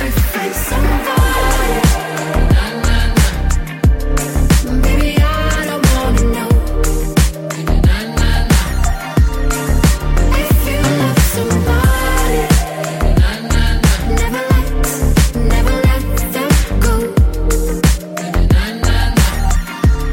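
A polished electronic pop track plays at full volume, with a steady punchy beat, deep bass and layered synths running continuously throughout, no talking over it.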